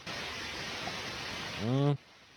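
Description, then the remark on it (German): A steady, even hiss of phone call-line noise runs for about two seconds, a short voiced sound rises near the end, and then the hiss cuts off abruptly into near silence as the call is ended. “Jetzt geht mir das Rauschen ab.”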